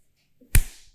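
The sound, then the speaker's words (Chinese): A single sharp hand clap rings out, loud and percussive, its bright snap trailing off into a short decay, preceded by a faint soft tone just before. “我拍手吗？”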